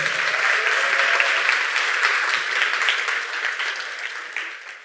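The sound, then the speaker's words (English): Steady, dense applause from a crowd, many hands clapping at once in a continuous wash of noise that holds strong and then gradually fades over about five seconds. “Um, she has, yes, give it up for my father's clapping.”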